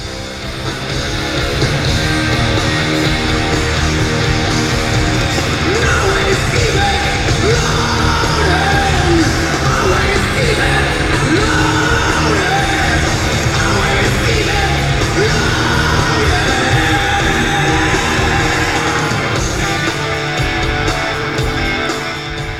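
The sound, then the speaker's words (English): A rock singer screams and yells over loud, dense live band music with pounding drums and distorted guitars, sustained and full for the whole stretch. “has some very effortless screams in …”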